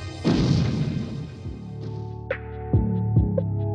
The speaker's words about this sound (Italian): Bene, questo era il ruggito di Godzilla del 1984 dal film Il ritorno di Godzilla.